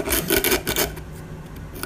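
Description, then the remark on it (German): Wood being sanded with a sanding tool: a series of quick, harsh scratchy strokes that settle into a softer, steady rubbing hiss. No voices are heard. “Schleifen, aber nicht feilen.”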